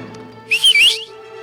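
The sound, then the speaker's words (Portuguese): A person whistles a short, loud call lasting about half a second, two quick rising notes, the kind of whistle used to summon a dog, demonstrated on its own with no talking. “mais ou menos assim, que eu não sou bom assobiador”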